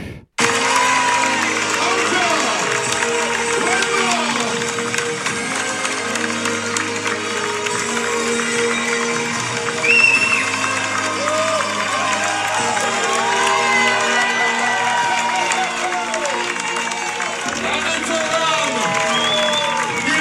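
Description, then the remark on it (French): A large crowd cheers and shouts continuously at the UTMB 2023 race finish as Blandine Lirondelle arrives in tears, finishing third in the women's race in 24h22. A dense wash of voices with whoops and some clapping holds steady loudness throughout, with a brief louder swell midway. “On écoute l'arrivée de Blandine Lirondelle qui termine cette UTMB 2023 en larmes”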